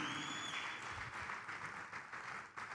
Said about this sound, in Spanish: Eso se merece un aplauso, ¿verdad? Eso es verdad. Amén. Amén.